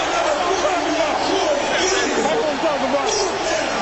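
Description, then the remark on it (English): A large stadium crowd in Orlando roars and cheers steadily during a football game against Vegas, a dense, loud wall of noise that holds constant throughout with no clear breaks or individual voices standing out. “And Vegas and maybe Brandon Sanders inadvertently allowed this Orlando crowd to get back in this thing.”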